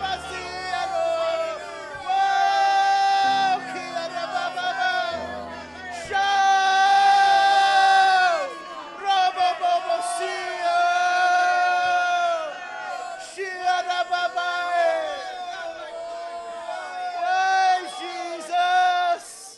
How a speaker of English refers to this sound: Church, if you believe that right now, without the hype, without the loud music. Just begin to roar your praise to heaven.